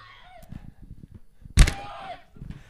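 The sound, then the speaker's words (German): A sharp smack on the beak of a small stress-relief toy bird kept on an office desk is followed at once by its shrill, squawking scream, loud and lasting about half a second, with faint murmuring before and after. “Und wenn man Stress hat, dann kann man dem einfach eins auf die Schnauze hauen und so. dann schreit er.”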